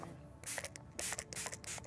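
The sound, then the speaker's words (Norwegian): A skin therapist at Colosseum spa sprays a client's legs clean before applying a thick layer of lukewarm wax for leg waxing: several quick hissing spritzes from a spray bottle, in two short clusters of bursts, fairly soft, with no one talking. “sprayer leggene mine rene før hun smører på et tykt lag med lunken voks.”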